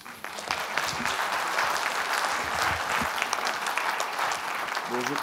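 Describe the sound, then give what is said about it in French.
Sustained audience applause, a dense, steady patter of many hands clapping that holds at an even loudness for the whole stretch, with a faint voice surfacing near the end. The audience is applauding three conference speakers at the close of a morning session. “Je crois que nous, il faut applaudir à nouveau nos trois euh, conférenciers”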